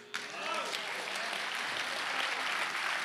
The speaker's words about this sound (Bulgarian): О, ако ръкопляскаш, ръкопляскаш, че наистина вярваш.